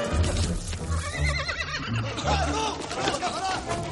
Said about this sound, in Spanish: Un caballo se acerca y para bajo el saliente sobre el que está Indiana.